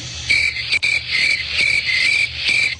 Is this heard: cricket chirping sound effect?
yes